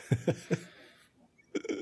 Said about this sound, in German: Sorry, kurzer Räusperer, der muss kurz hin. Passiert.